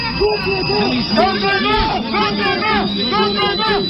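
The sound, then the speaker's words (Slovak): A crowd of many voices at a rally against fascism that Kiska attends shouts together in loud, overlapping bursts, a dense and continuous roar that rises and falls in rough rhythm as the gathering is ending and people disperse. “A Teraz kričte, lebo asi končia.”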